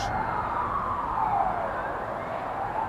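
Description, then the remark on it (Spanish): Ambulance sirens wail continuously in the capital after Russian missile explosions, as dead and wounded are recovered; a steady rising and falling tone sweeping over a dense street background, moderately loud and without any voices. “Con las explosiones han llegado también los sonidos de las ambulancias y la recuperación de cadáveres y heridos.”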